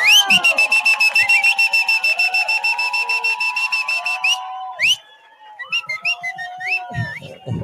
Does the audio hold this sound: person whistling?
yes